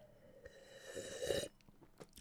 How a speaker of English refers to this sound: Moving on. Moving on to a, uh, another sip of water.